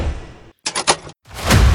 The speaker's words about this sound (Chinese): 厕所就传来熟悉的关门声